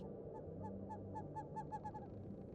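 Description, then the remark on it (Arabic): An owl hoots repeatedly in quick, evenly spaced calls, very close, about ten steps away, over a steady low rumble of strong wind outside. No one speaks. “قد سمع صوت بومة قريبة جدا تبعد مقدار عشر خطوات على الأقل والرياح شديدة في الخارج”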